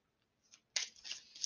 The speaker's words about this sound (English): I am shuffling the Art Nouveau Tarot deck, Lenormand's, right now.